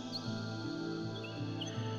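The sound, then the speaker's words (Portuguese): A small bird perched on someone's shoulder gives a few brief, high chirps scattered across a couple of seconds, soft and light over a steady, low humming musical drone. “O passarinho gentilmente pousa no seu ombro e você escuta o seu cantar.”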